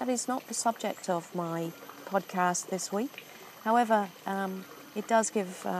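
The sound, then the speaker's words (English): Steady reticulated water at an ecotourism beach resort on Sentosa Island murmurs faintly in the background, a continuous low wash beneath a man talking throughout. “And uh, if you can hear the noise in the background, it's the reticulated water and the noise of the monkeys.”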